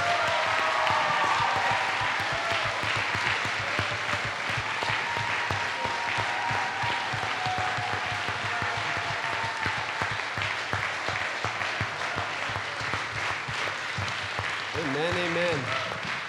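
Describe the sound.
Sustained audience applause for the staff and chaperones as they stand up fills the whole stretch, a dense steady wash of clapping at an even loudness, with a brief wavering voice rising out of it near the end.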